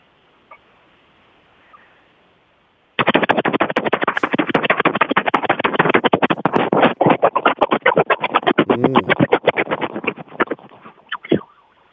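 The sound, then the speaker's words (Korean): A voice imitates a military helicopter passing during army training: after a few seconds of near silence, a loud, rapid rotor-like chopping starts abruptly and pulses steadily, swelling and fading in strength, then trails off near the end. “자 훈련 중에 지나가던 헬기 한번 들어보겠습니다.”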